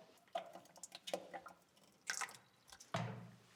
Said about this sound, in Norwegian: The cream rises to the top, and I scrape that off into a jug and then pour the cream into the churn. Now, I tend to pour it at quite a height so that it aerates, so that it turns quicker.